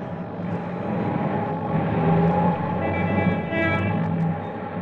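A steady, dense roar of city traffic fills the scene, with engines rumbling and brief higher whining tones rising over the din partway through. No one speaks.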